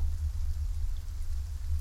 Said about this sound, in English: The rain pittered and pounded on the hood of her jacket, each drop making its own sound.